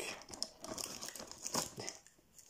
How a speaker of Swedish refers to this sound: Nu är det dags att öppna lucka två i julkalendern.